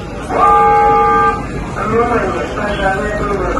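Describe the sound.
A fire alarm in the terminal of Makhachkala airport blares a loud, steady electronic tone for about a second, then cuts off as a voice begins announcing the fire alarm over a reverberant background.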